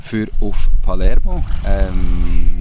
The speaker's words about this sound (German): ihr hört eben gerade einen Roller nebenan, aber das macht gar nichts.